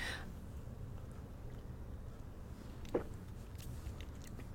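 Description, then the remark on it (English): A single loud gulp from swallowing a big sip of coffee, short and wet, about midway through. A steady low rumble sits underneath, and no one speaks. “you may have, the microphone may have picked up that loud gulp because I took a big one.”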